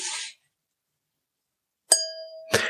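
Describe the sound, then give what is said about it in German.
A wine glass is struck once and rings out with a clear, sustained tone, followed shortly by a second, rougher clink. A short burst of hiss comes first, then silence. “Das Glas Wein.”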